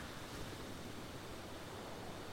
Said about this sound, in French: les douces vagues s'échoue sur le banc de sable.